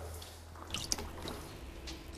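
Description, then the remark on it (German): A hand dips into warm, 28–29 °C water of a home swimming pool in a basement, giving a brief cluster of soft splashes and drips, then gentle sloshing over a low steady hum. “Greifen Sie mal ins Wasser.”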